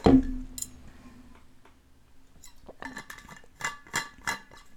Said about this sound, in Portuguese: Deixa eu só tomar uma aguinha aqui rapidinho.